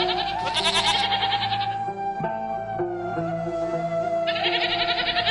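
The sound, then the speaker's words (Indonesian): Goats bleat loudly in long, wavering cries, one call at the start and another near the end, with softer animal noise and a steady hum between them. “sambil melakukan pekerjaannya mengembalakan kambing milik keluarga dan beberapa penduduk Mekah.”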